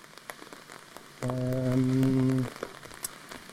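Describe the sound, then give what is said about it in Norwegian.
Steady heavy rain patters and splashes on a hard surface, a dense crackling wash, with a loud low droning tone rising over it for about a second before fading back to rain. “Ja, for nå begynte det å regne noe veldig. Ja, det regner jo fælt, da.”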